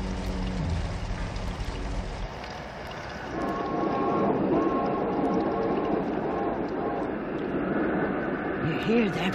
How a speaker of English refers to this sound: whistle out there. That's the terror train, the old spook limited. Tonight it's right on schedule, yes.